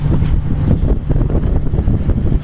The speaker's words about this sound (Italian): potete sentire i diesel del Savonarola che stanno pompando a tutta birra. Andiamo pari avanti tutta perché è cominciata appunto la corsa contro il tempo.